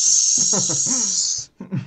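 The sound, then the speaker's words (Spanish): A voice imitates an aerosol spray can: a loud, steady, high-pitched hiss held for about a second and a half, with murmured vocal sounds beneath it, followed by a brief bit of speech. “¿Quieres, quieres contaminar la modas así de todos echando spray así como...”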